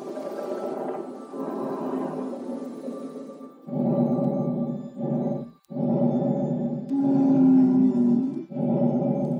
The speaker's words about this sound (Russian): Вот так звучит дыхание человека, пораженного болезнью COVID-19. Он не может сам дышать. Ему нужна искусственная вентиляция легких.